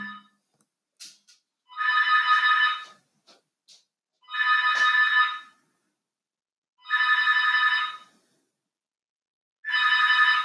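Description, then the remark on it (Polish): An intercom rings in four evenly spaced bursts, each about a second long, a bright electronic trill with strong harmonics, separated by roughly two-second pauses of silence. “Nie, nie, nie jakby nie, nie mogłem odebrać tego domofonu.”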